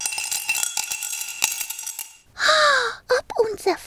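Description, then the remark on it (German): Faint, delicate clinking with scattered light metallic ticks from a bottle being shaken rings out for about two seconds, followed by a louder, harsh vocal cry and a few short voiced sounds. “Nur ein leises Klirren war zu hören.”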